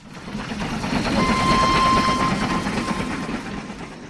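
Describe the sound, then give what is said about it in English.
A train rumbles steadily along railroad tracks with a broad, continuous roar and faint rhythmic clatter, growing slightly louder mid-way; a thin, steady metallic squeal rises briefly above the noise. “Because trains go choo choo, and I love to choo choo on tacos.”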